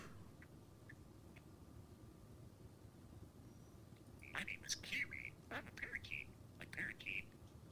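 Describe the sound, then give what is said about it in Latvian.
A parakeet chatters to a phone in quick, scratchy bursts of chirps and squawks with a speech-like quality, starting after a few seconds of quiet low hum and continuing moderately loud. “Viņai, viņa notais papagailītis, jeb tas parakīts, kā tos latviešu sauc. Ko viņš darīs? Runāsies ar telefonu.”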